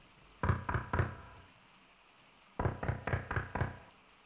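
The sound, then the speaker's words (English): Firm knocking on a front door during a storm: three quick raps, a pause of over a second, then five more in steady rhythm, all over a soft, constant hiss like rain. “Is, is that the front door? Who could, uh, who could be at the door in a storm like this?”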